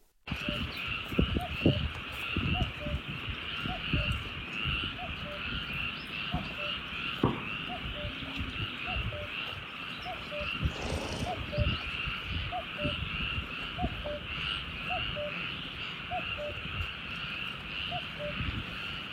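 Night ambience in the Viguera marshes, a nature reserve in the Camargue: a dense, steady chorus of frogs and insects hums throughout, while a single call repeats roughly every second, with occasional low rustles and thumps.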